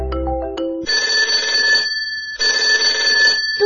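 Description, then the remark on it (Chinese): A telephone rings loudly with an incoming call, in two long, buzzing bursts with a brief pause between them, after a few short tonal notes at the start. No one speaks. “嘟嘟，又来电话了。”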